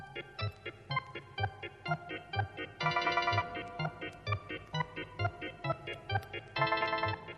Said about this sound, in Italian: Gli suonano le campane dei demoni! tintinnano le catene dei fantasmi.